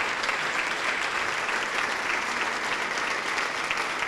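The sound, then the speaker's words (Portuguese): Sustained applause from an audience at a religious service, applauding God: a dense, steady wash of many hands clapping at once with no break, loud and even throughout. “Vem aqui para frente agora, então, em nome de Jesus, e vamos aplaudir muito ao nosso Deus.”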